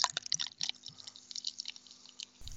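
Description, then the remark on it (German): Fizzing and crackling of beer poured into a glass, with irregular bubbly pops and liquid splashes over a couple of seconds, no voices. “Ich, ich versuche mal, das, äh, den Sound des Eingießens des Bieres in äh, das Glas aufzubekommen.”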